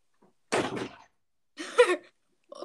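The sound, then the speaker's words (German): A door swings and shuts, two fairly loud bursts of rattling and thudding about a second apart, then a faint click at the end. No one speaks. “So, ihr, ich weiß nicht, ob man die Tür hört, ne?”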